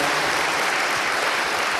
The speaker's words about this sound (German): Also gern nochmal Applaus für die beiden. Richtig gut.